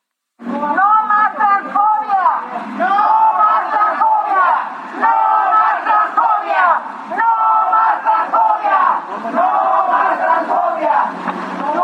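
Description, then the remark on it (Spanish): A loud crowd of trans women protesting transphobic comments chants in unison outside the PAN party headquarters in Mexico, many voices shouting rhythmic slogans continuously with brief dips between phrases, sustained for the whole stretch. “Y vamos a escuchar ahora parte de esta manifestación.”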